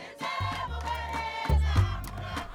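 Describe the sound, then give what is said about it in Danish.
A person imitates a mountain gorilla's contented vocalization: two deep, guttural rumbling grunts, fairly loud, the second rising in force toward the end. “Now, I had the crawl around for two years, came to imitate their peaceful vocalization, their contentment vocalizations, mom, like this.”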